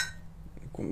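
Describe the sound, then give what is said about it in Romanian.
Glasses clink together in a toast: a bright ringing chime at the start, then another sharp clink right at the end, fairly quiet, with no talking. “O să beau chestia asta, ai noroc. Uite, bem”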